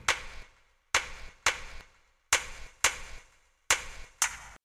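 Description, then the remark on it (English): Six punchy, reverberant hits from a 909 drum machine in a song's backing track, a low kick drum thump layered with hand claps, sound in a loose, uneven pattern, each tail ringing out briefly before the next. No voices. “A 909 kick drum and then some hand claps.”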